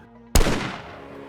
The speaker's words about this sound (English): Inside the hotel room, Abernathy heard what he thought sounded like a car backfiring. He glanced out the door. King lay sprawled on the ground. The sound wasn't a car, it was a single fatal gunshot.